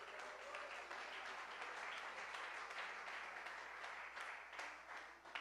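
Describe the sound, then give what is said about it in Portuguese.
A crowd applauds the Lord Jesus steadily for several seconds, a dense wash of many hands clapping at once with no clear rhythm, holding an even loudness before tapering slightly at the end. “Aplaude o Senhor Jesus, gente.”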